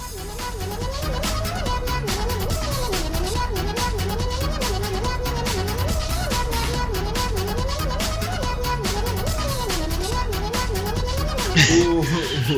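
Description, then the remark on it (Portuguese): A bouncy, catchy chiptune tune plays continuously at steady volume, with a looping melody of repeated cat meows riding on top of bright electronic beeps and a driving beat. “Vem cá peidando arco-íris e tocando uma musiquinha do inferno.”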